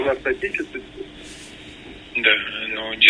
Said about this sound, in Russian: Прошу прощения за некоторое эхо в эфире, но это технические проблемы и главное, что не мои